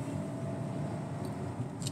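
A steady, low rumble of road and engine noise, as heard from inside a car driving in traffic on the Niterói bridge, holds constant throughout with no voices and only faint high hiss flickering near the end.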